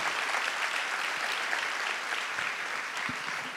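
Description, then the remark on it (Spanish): Steady applause from an audience, a dense, continuous wash of many hands clapping at an even loudness throughout, with no voices standing out. “Ah, si van a aplaudir, por favor, ayúdenme, anímenme.”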